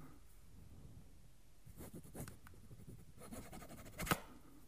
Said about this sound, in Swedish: Ska vi hitta en gammalt kvitto som du har ritat på? Mitt lilla sushi-kvitto. Vad ska du rita? ska jag bara öva en gång så min autograf låter fint.